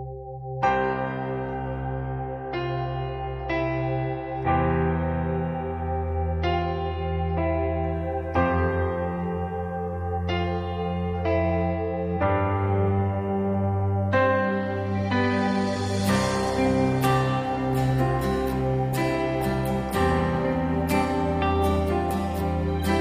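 A contemporary Christian song plays with no talking over it. Chiming, bell-like keyboard tones ring out over a warm, steady bass, then the arrangement brightens and fills out with crisp percussive hits near the end.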